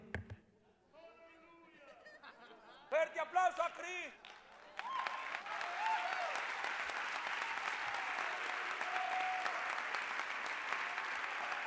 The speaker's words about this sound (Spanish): ¿Cómo que usted va a aplaudir?